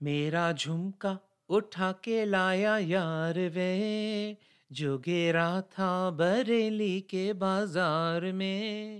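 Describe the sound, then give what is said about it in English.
A recorded Hindi film song: a loud solo vocal sings sustained, ornamented melodic lines in Hindi, continuing throughout with only brief pauses between phrases. “And this is what the actual song sounds like.”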